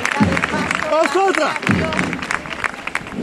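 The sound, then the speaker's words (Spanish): A crowd in the Macarena neighbourhood applauds a religious procession float as a march ends, with dense clapping throughout and voices calling out over it partway through, giving a busy outdoor atmosphere. “que suena de nuevo los aplausos aquí en, el barrio de la Macarena.”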